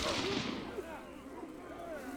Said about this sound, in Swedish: Ehm, men de tre andra har ju ändå sina skrotgevär. Som de skjuter med och skjuter med och skjuter med.